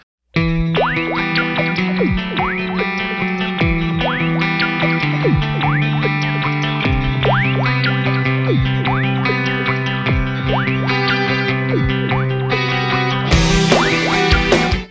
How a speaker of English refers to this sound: The opening guitar strum and keyboard bips and boops sounded fresher than a cold cucumber in my ears at that age.